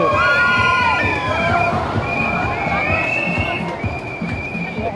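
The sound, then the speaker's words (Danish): A crowd of graduating students cheers and shouts together outdoors during student graduation season, many voices overlapping in loud, excited whoops and calls that rise and fall in pitch, continuing steadily throughout. “det er i høj grad er studenter, det er i høj grad studentersæson lige nu.”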